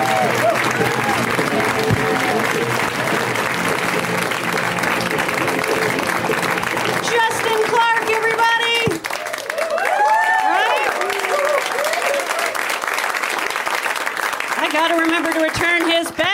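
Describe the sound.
An audience breaks into loud, sustained applause for the evening's first comedian, steady dense clapping that continues throughout, with scattered cheers, whoops and shouting voices rising over it.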